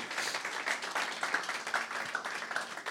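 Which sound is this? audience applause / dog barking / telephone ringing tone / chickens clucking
audience applause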